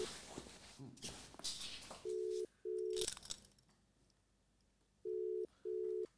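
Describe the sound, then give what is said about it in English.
Outgoing call ringing tone: two rounds of steady double-pulse rings, each pair repeating about three seconds apart, loud and clear, following rustling noise and muffled voices. “My you better answer your phone.”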